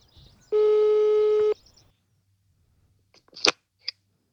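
A single steady ringing tone of an outgoing phone call sounds for about a second, followed by quiet and then a couple of sharp clicks, like the line being picked up.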